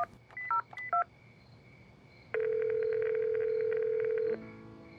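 A quick run of about five short electronic keypad beeps at varied pitches as a telephone number is dialed, then a pause and a long, steady single-pitched ringing tone that holds for about two seconds before cutting off.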